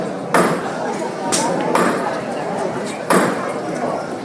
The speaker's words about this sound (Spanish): van a dar el golpe ahora del martillo. A ver, a ver, a ver si se escucha.